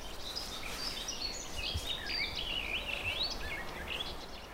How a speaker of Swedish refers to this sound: Nu har vi någon sjunga. Ja, det är, det är lite den här lövskogens fåglar, eller skogens fåglar. Det är en eh, rödhake och sen så pratar en lite mer pladdrande läte som jag skulle tro är en trädgårdssångare.